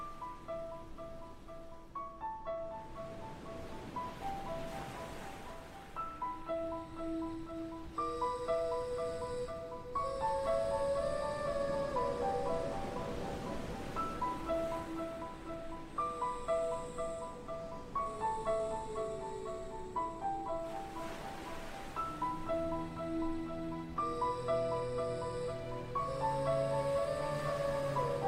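A calm instrumental song plays with long sustained synth notes and gentle melodic lines, layered over soft washing noise like ocean surf swelling and receding, steady and fairly loud throughout with no voices.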